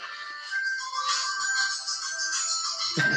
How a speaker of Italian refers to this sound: Scusa, scusami, questo è il telefono di mia moglie.